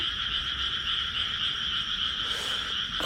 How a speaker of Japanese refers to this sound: こうやって田んぼに来てみるとカエルって結構鳴くもんですね。